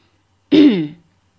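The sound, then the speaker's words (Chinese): A single throat clearing by a person with hands folded on top of a cane, a loud half-second rasp that slides down into a low voiced grunt, with silence before and after and no speech. “森川岛之野把双手交叠在拐杖头上，清了清嗓子。”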